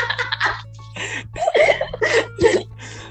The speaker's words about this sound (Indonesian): wah batuk lagi batuk, batuk.